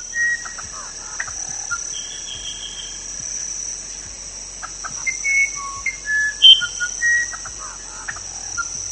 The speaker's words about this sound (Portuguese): e ao longo de toda a noite, um sereno toma conta da floresta, aliado ao barulho de diversos animais que emergem do rio, como sapos e aves que me hipnotizavam ouvindo seu canto.